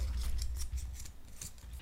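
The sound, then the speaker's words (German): A lid twisting open on a glass jar of gum balls, used as a gum ball dispenser, to take out one ball: a quick run of about nine scraping, ratchet-like clicks in a fairly even rhythm over a low rumble, with no talking. “Ich hole jetzt eine Kugel aus dem Kaugummiautomat namens Glas raus. Oh Gott, geht das denn auf?”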